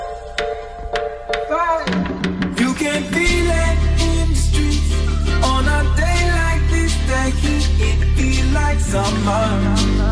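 A pop song plays loud and clear, opening with a light, sparse intro before deep bass and a steady beat kick in after about three seconds and carry on evenly.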